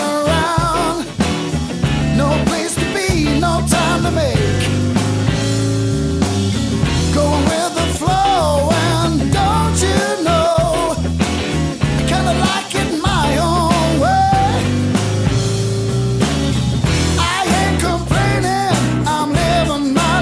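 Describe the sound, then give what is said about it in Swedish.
A full band plays a song throughout, with steady drums, a deep bass line and bending melodic lines over a dense, loud, continuous mix. “Vi spelar självklart upp en minut av alla pristagare.”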